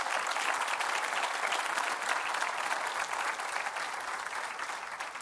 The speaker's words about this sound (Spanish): ¿Cuánto dice gloria a Dios? Eso merece que usted le dé una ofrenda de palmas.